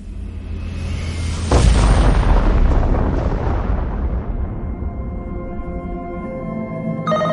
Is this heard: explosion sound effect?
yes